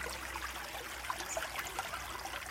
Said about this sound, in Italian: Poi portò i panni alla fontana per lavarli e l'indomani passò la mattinata con le mani nell'acqua e a furia di battere, strizzare, lavare tutto il pilipili scivolò nell'acqua e poi nel ruscello e di lì nel torrente Evanson.